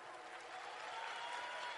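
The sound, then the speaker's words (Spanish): Steady audience applause for Colonel Ambassador Tim Foley, a dense wash of many hands clapping at an even, sustained level with no voices standing out, holding constant throughout. “Y a nuestro coronel embajador Tim Foley un fuertísimo aplauso.”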